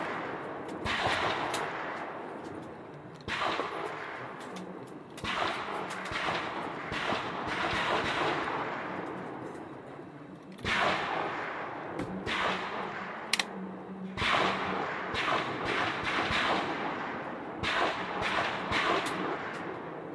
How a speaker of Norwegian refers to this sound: Gjør klar til andre serie. Det skal skytes fem skudd stående. Skytetid tre minutter.